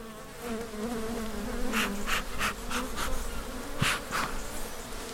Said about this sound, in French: on vient d'ouvrir une ruche. C'est ça. Et on fume euh, l'intérieur de la ruche. Et là, on voit vraiment énormément d'abeilles.